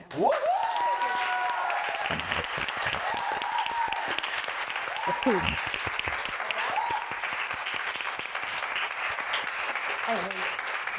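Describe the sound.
Sustained audience applause fills the whole stretch, a dense steady wash of clapping at fairly even loudness, with a few brief voices and whoops rising over it.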